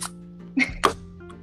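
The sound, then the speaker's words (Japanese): A can of beer is cracked open for a toast, before being poured into a wine glass: a sharp metallic click followed by a brief, bright hiss of escaping gas, with a quiet background and no talking. “プシュッという音とシュワシュワとついでる音が聞こえたけどよかった”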